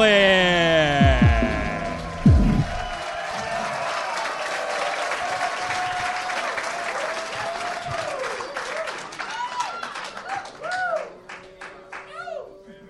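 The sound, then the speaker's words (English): A live crowd bursts into sustained applause with scattered whoops and shouted cheers, loud and dense throughout, tapering slightly toward the end as individual voices rise above the clapping. “Give it up for Tony Hinchcliffe.”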